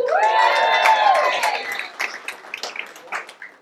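A crowd bursts into loud, high-pitched cheering and whooping, which gives way to a couple of seconds of scattered, uneven applause as the claps gradually thin out.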